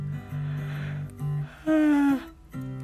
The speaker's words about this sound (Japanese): いきなりあくびが出ちゃった